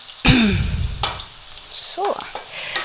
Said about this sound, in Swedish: Jag har fyra deciliter arborio-ris som liksom får steka med löken här i nu. Och ah, så här, i, i någon minut.